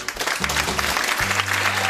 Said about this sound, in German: An dieser Stelle, meine Damen und Herren, bitte ich Sie um einen kurzen Applaus.